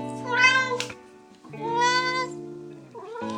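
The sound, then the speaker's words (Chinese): A black cat named Ma Liu meows loudly, two long drawn-out meows followed by the start of a third, each with a rising, wavering pitch. No one speaks. “这边这一只是黑猫马六。”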